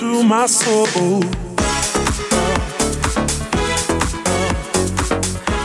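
An older deep house dance track, about eight years old, plays loud, opening with a warbling vocal-like melody before a steady four-on-the-floor kick and bassline drop in with regular rhythmic pulses.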